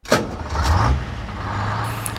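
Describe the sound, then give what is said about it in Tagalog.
A heavy truck engine roars to life and speeds away carrying people fleeing a volcanic eruption, a steady low rumble holding at full loudness, with a brief clunk near the start. “Umarangkada na yung truck, walang minor-minor.”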